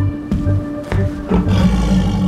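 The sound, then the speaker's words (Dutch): A tiger roars in deep, rumbling bursts: two short growls followed by a longer, sustained roar, loud, with a steady low hum beneath and no talking. “Een hondje? niet een tijger, hè, stommerik.”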